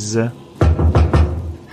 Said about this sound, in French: Je sais pas, j'entends frapper à la porte. Vite, vite si, si, si, vas-y, ouvre, ouvre, ouvre, c'est notre invité du jour.